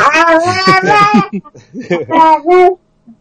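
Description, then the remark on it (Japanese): A baby cries out excitedly in a string of high, bright wails and squeals, fairly loud, with short pauses between bursts before falling quiet. “ね赤、赤ちゃんも興奮してますね。”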